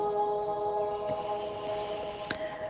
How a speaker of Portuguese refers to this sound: Olha que lindo! De vez em quando passam os carros, mas se a gente isolar esse barulho e ficar só com o barulho dos pássaros, fica lindo.